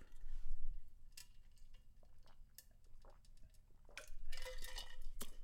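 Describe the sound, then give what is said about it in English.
Someone drinks Gatorade from a plastic sports-drink bottle, with scattered light clicks and clinks of the bottle being handled, gathering into a busier burst near the end. No one speaks. “Had to hit my Gatorade.”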